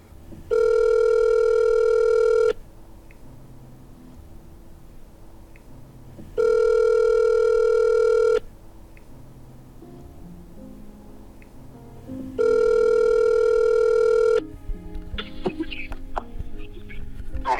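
A telephone ringback tone sounds three times in steady two-second bursts with pauses between, loud and clear, going unanswered; faint background noise fills the gaps, with some clucking-like sounds near the end.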